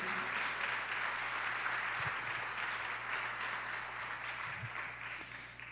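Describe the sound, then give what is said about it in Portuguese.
An audience applauds the name of the Lord Jesus in a steady, dense wash of clapping that holds at full strength for several seconds, then begins to thin and fade slightly toward the end. No one speaks over it. “Aplaudo o nome do Senhor Jesus, amados.”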